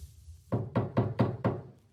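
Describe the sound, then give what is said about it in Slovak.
Five soft, evenly spaced knocks on a room door by a visiting medical clown, each a muted thud with a short decay, following a brief quiet moment. “Stojím pred Martinkinými dverami a jemne zaklopem.”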